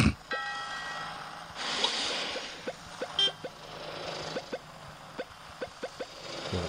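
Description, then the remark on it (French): A video game chicken hops along in a string of short, soft blips at a quick, uneven pace, after a brief burst of hissy noise and a faint electronic tone. “je vais faire le poulet, hein, comme ça, ça fait du bruit.”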